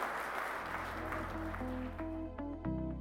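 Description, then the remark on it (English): A crowd at a Cottonwood Creek church men's Bible study claps and cheers for the senior pastor in a dense wash of applause that gradually fades as a steady musical outro with sustained tones and bass notes rises to take over. “Y'all give it up for”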